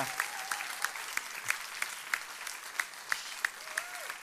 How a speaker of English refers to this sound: Absolutely fantastic. Keep that clap going till she gets here.